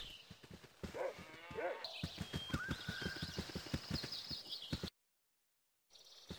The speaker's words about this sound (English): We run across more empty fields and hear uh. the footsteps of his running grow fainter the farther we get from him.